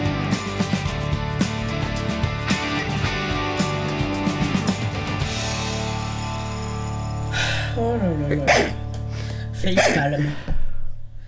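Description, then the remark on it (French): Loud sneezes burst out near the end, one after another, cutting over steady background music and a few voice sounds. “à tes souhaits.”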